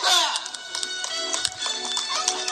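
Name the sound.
audience applause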